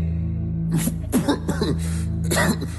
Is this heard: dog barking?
no